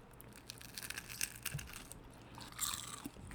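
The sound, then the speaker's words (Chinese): Someone bites into a crunchy egg-yolk taro snack, giving a run of soft, crackly crunches and a slightly louder crunch near the end, fairly quiet and with no talking. “你边吃我们边聊，来来来，咬一口，咬一口，现场收音一下。”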